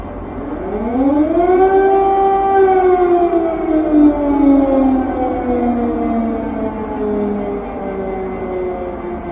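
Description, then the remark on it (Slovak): A loud air raid siren in Ukraine on 24 February, during the Russian attack with rockets and bombardment, winds up to a sustained wail, then slowly drops in pitch as it fades downward, steady and continuous with no voices present. “24. februára sa Ukrajinci zobudili na zvuk sirén, rakiet a bombardovanie.”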